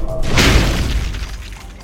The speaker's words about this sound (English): Outside, the impossible ship had slammed into a hillside, sending snow blasting everywhere.